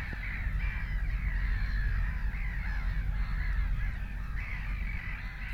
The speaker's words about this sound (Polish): Drugie nagranie terenowe, które wykonałem, to nagranie również stada ptaków. W tym przypadku były to śmieszki